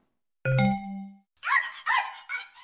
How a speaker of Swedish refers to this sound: Och en hund.